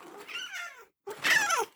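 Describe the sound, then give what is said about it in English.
A cat meows twice as it is called over and offered new treats, the first call drawn out and wavering, then a short pause before a louder, sharper second meow that rises and falls. “we got new treats for you. Kitty shrimp, come here.”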